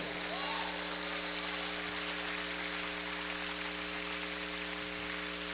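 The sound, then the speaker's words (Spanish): A church audience applauds for the Lord in a dense, steady wash of clapping that fills the whole stretch, with a sustained held chord humming underneath. “Fuerte ese aplauso para el Señor.”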